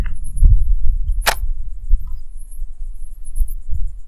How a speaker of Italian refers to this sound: Il nulla, cioè non il nulla, c'è tutto qui, però in mezzo al paradiso, appunto telecomando, scatto remoto, macchina pronta, via latte davanti, la faggeta che la incornicia, senti eh,